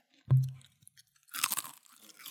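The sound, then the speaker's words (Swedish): A crisp bite into a crunchy sour-cream-flavored snack, done as an ASMR test, followed by a burst of loud crackling chewing, with no talking. “det här är ASMR. Mm. Ska vi bara göra det istället? jag tänker att jag testar. Här, lyssna nu.”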